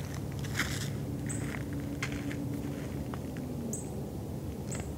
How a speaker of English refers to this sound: Uh, that's a junco chipping. That's what I'm hearing.